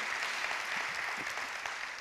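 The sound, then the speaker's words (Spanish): A crowd claps steadily as applause for the Lord during a Spanish-language sermon, a dense wash of many overlapping hand claps at an even loudness with no break, and no one speaking over it. “un aplauso al Señor.”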